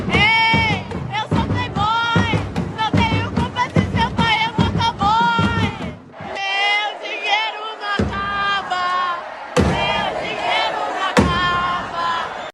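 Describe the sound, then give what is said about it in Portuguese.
A large group of young voices, medical students of the University of Iguaçu, chants and shouts in unison at an inter-university medical student championship match in Vassouras, Rio de Janeiro, Brazil, loud and rhythmic, with bursts of crowd yelling and a few sharp bangs breaking through the din. “Nas imagens é possível ouvir os gritos dos estudantes da Universidade de Iguaçu.”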